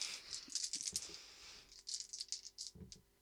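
Five dice clatter and rattle together in a rapid, dense burst as they are rolled for a strength roll, pause briefly, then tumble and click again across a hard surface, fairly loud with no talking.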